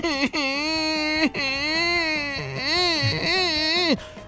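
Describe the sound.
A man wails and sobs loudly up close in three long, wavering, drawn-out cries with brief gasping breaks between them. The crying sounds exaggerated, as if a voice is acting it out.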